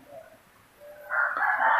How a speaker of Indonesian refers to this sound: ada suara ayam di kamar lu bingung gua. Ayam apaan?